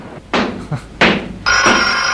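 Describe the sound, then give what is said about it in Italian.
A telephone rings in short electronic bursts, loud, with a couple of knocking thuds mixed in before a sustained tonal ring at the end; the call is answered at the Rinaldi butcher shop (Macelleria Rinaldi). “La, te- la telefonata famosa.”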